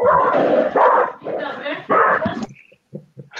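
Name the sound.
dogs barking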